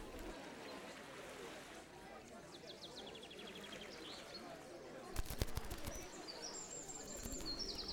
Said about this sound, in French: Dans les branches plumeuses des acacias, les moineaux pépillent à qui mieux mieux. Ils inspectent le sol dans l'espoir de trouver entre les danseurs ou sous les tables quelques miettes de galettes.